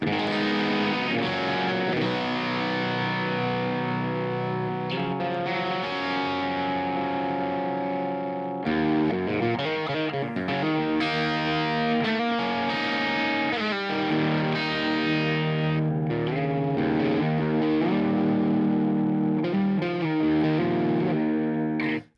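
An electric guitar played through an overdrive pedal in a pedal demo, thick and gritty with sustained harmonic-rich notes and chords, loud and steady for the whole stretch with a brief break partway, no voices.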